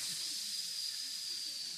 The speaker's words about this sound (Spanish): y luego te dicen, es que tienes que escuchar ruido blanco o ruido rosa, ese